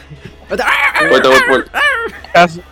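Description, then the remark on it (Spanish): A dog barks and yelps in the background in a few short, sharp bursts, with the last bark loudest; voices seem to mingle with the noise. “avisamos que no es podcast mexicano si no hay un perro de fondo.”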